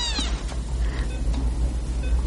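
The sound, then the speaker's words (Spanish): A small female Siamese kitten, placed by a nurse beside a patient's head, lets out a high, thin meow right at the start, followed by a few fainter mews over a steady low background hum. “Le pone un cachorrito de gato siamés junto a la cabeza.”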